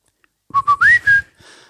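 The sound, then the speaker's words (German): A person whistles a short, clear tune, imitating a pet bird: two quick chirpy notes, then a rising slide into a longer held note, trailing off softly. “Und dann pfeift er das Steigerlied.”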